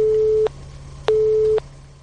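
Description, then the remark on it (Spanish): A telephone busy signal from a malfunctioning telephone: two steady, fairly loud tone pulses separated by a brief silence, repeating in an even on-off rhythm over a low background hum, with no one speaking. “Es que hay que ver otra vez, nos está fallando el teléfono.”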